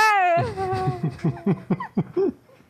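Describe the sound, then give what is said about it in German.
A voice mimics the scream of a ghost flying away out of sight: a high, drawn-out wail slides downward, then breaks into a string of pulsing, wavering cries that grow fainter and trail away. “Ihr hört ihn noch so schreien, so.”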